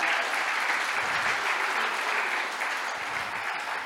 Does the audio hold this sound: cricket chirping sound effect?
no